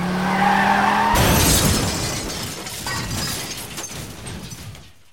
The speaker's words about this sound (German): Dann explodierte der Airbag in sein Gesicht.